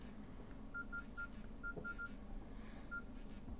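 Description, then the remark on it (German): Someone types text on a mobile phone keypad in keypad mode: a quick series of short, clear beeps in small clusters over a steady low buzz as the phone vibrates with each key press, moderately quiet, with no talking. “Ja, man hört es vielleicht ein bisschen vibrieren.”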